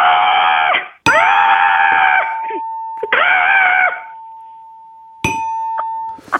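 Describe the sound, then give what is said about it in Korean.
A voice imitates an angry, hoarse crow with vocal cord nodules, giving two long, strained, raspy caws, then a shorter squawk, loud, with a faint steady tone running underneath. “어, 화가 잔뜩 난 성대 결절 걸린 까마귀요.”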